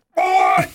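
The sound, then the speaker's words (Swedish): A man lets out a single strained groan as he gets up, like an old man heaving himself up, loud and held about half a second before dropping off into a low grunt. “Ja, ja du vet, och man sätter sig, så fort man ska sätta sig i så bara, Och ännu ändå när man ska upp, ha!”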